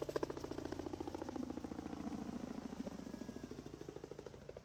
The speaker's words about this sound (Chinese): 又有一个飞机飞过去了。它怎么就飞完了？